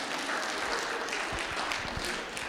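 A crowd applauds steadily, a dense wash of many hands clapping at a constant level with no pauses, filling the whole moment without any voices standing out.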